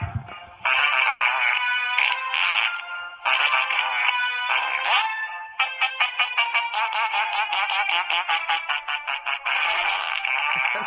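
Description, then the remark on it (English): A musical birthday greeting card plays a classical tune in buzzy, fart-like notes, tinny and loud, the melody running continuously for about ten seconds with brief pauses between phrases. “Yeah, and it says it it's performed it's performed by the world famous New York Fart Harmonic Orchestra.”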